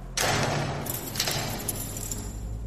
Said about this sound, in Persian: چند دقیقه همینطور داد و بیداد کردم تا اینکه صدای باز شدن یه در بزرگ فلزی اومد